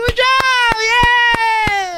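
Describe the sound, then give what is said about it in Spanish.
Six sharp, close hand claps at a steady, unhurried beat, ringing out over a continuous high, tonal voice that holds one pitch throughout. “Así le aplaudieron, güey.”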